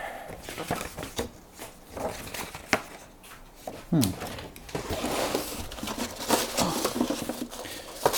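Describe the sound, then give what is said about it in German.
Continuous rustling and shuffling of paper sheets as someone sorts out papers and checks between the paper layers, with irregular crisp flicks and soft thumps as pages are handled, fairly loud and steady throughout. “Krach und sortiere gerade noch Papier aus und, und schaue, ob da sich zwischen den Papierlagen.”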